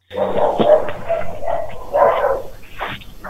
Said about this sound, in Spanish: Esperemos que se calle la jauría de perro.